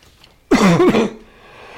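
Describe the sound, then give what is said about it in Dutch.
A single short, harsh cough bursts out, lasting about half a second before fading into quiet room tone. No one speaks. “Tot nu toe ging het wel met het hoesten, maar.”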